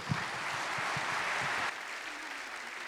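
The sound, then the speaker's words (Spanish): A crowd at a New Year prayer gathering claps to welcome the speaker's wife up to speak, in a dense, continuous wash of applause that holds at a fairly loud level, then drops slightly and carries on a little thinner toward the end. “¿Por qué no la invitamos con un fuerte aplauso?”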